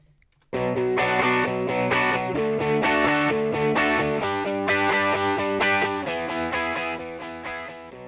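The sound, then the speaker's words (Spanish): A short radio jingle sting (ráfaga) of loud, distorted guitar-heavy music that bursts in after a brief silence, with chords shifting about once a second, then tapers slightly at the end. “Venga, vente la ráfaga.”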